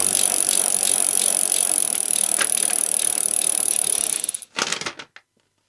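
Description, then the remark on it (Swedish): A raffle tombola drum spins with a steady, busy rattle and clatter for about four seconds, then slows into a few final clunks and stops. No one speaks. “Då tar vi och kör igång tombolan.”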